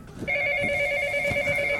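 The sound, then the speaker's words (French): A telephone rings with a steady, shrill electronic tone that starts abruptly and holds unbroken to the end, fairly loud, with no voices over it. “Je je voudrais surtout pas être dérangé, là. Est-ce que. Oh c'est fou ce téléphone.”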